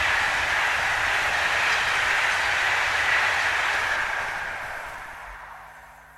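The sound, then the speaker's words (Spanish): A diesel train at Goring-on-Thames rumbles past with a broad, steady roar and faint rhythmic wheel clatter, holding loud for several seconds before gradually fading away at the end. No voices are heard. “Es más, era una un tren diésel en Goring on Thames.”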